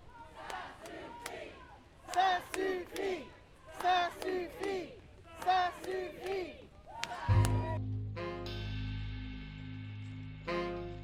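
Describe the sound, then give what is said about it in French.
A crowd of a few hundred protesters in the streets of Ottawa chants a slogan in loud, rhythmic bursts, repeating it about five times, before the chanting cuts off abruptly into a sustained musical tone. “Aujourd'hui, dans les rues d'Ottawa, nous étions quelques centaines pour crier haut et fort”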